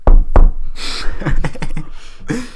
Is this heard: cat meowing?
no